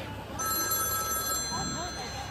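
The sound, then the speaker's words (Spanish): A telephone rings with a steady, high electronic trill that starts a moment in and continues unbroken, with a murmur of voices and room noise underneath. “Póngase el teléfono. Listos a contestar.”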